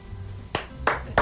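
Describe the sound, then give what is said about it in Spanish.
Three sharp hand claps in a steady, slightly slow rhythm, moderately loud, over a quiet background with no talking. “me gustaría también que participes no solo con las palmas.”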